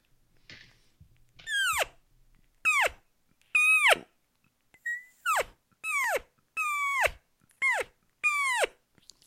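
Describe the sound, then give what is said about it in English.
A person imitates a cow mooing, giving about eight short, loud moos in a row. Each one starts high and slides down in pitch, with brief pauses between them and no talking. “Um, let me uh, let me bust out just a, a regular cow.”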